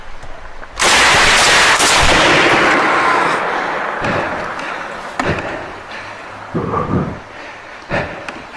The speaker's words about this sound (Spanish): En el tercer disparo se escucha un grito. No, no le dio. Era para asustarlo.